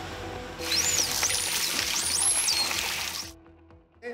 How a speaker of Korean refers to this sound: 프로펠러에서 엔진 소음이 납니다. 그러면 물 속에 어떤 소리 커튼이 만들어지는 거죠. 그러면 돌고래 입장에서는 이쪽으로 빠져나가지를 못하는 거예요. 소음이 스트레스가 되는 이유입니다.